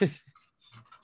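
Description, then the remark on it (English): Dogs panting and scrambling past as they run through a dining room, a quick burst of breathy huffs and scuffling, then softer, scattered panting fading off. “I don't know if you guys can hear that, but they're running through the dining room right now.”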